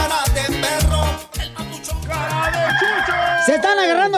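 A rooster crows loudly, a drawn-out rising and falling call over a pounding rhythmic music beat, with no one talking.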